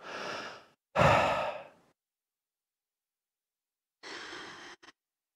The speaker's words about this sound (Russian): Хороший плавный вдох и выдох. Ну, так, чтобы было слышно его.